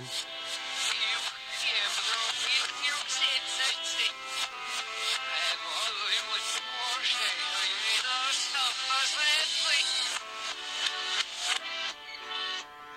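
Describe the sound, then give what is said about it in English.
A song plays in reverse, with dense, smeared music and warbling, garbled vocal lines that swell and cut off abruptly, staying loud and steady throughout with no other talk. “Well, here I'll play it on Backmask, but it's kind of creepy.”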